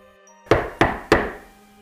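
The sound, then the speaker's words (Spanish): Three loud, evenly spaced knocks on a living-room door, less than half a metre from the listeners, at one in the morning. Each is a sharp thump with a short ringing decay, after a near-silent start. “Algo en la puerta del living, ni siquiera a medio metro de donde estábamos nosotros.”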